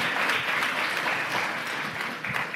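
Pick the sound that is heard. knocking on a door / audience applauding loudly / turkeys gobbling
audience applauding loudly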